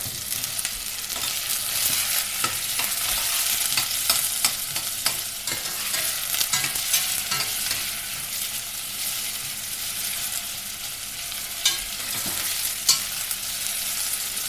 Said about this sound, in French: Voilà, donc après une petite coloration de 5-10 minutes environ, on va ajouter nos carottes.